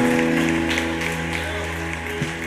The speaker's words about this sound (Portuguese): Aplauda mais uma vez o Senhor Jesus, aleluia, aleluia, aleluia.